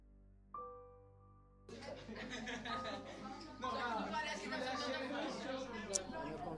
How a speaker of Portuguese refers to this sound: Todo mundo conversando ao mesmo tempo. Jéssica escuta vozes de uma multidão.